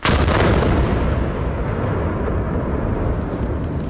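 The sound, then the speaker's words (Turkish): A fireworks factory explosion in Hendek, Sakarya: a loud barrage of overlapping booms and crackling blasts that rumbles on without pause for the whole few seconds, with no voices. “Sakarya'daki havai fişek patlamasının ardından aranan son kişinin de kimliği tespit edildi.”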